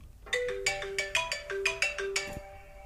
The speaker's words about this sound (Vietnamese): sorry có điện thoại để xíu